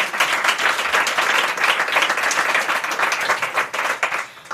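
Sustained applause from a sizable crowd at a live event, dense overlapping clapping at a steady loud level throughout, tapering slightly near the end.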